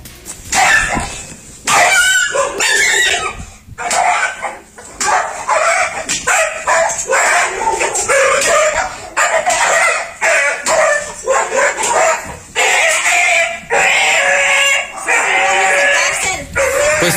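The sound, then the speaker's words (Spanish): A dog being mistreated, recorded on video, barks and yelps repeatedly in sharp, high-pitched bursts, loud, with brief pauses between the cries and some distressed whimpering mixed in. “si quiere ya observar el video del maltrato hacia este perro, pues corre video que esta noticia, otra vez somos noticia nacional, pero de manera negativa, corre video.”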